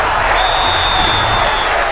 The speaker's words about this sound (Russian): 2000 год. Каталония. Стадион Камп Ноу. 110 тысяч болельщиков Барселоны неистовствуют.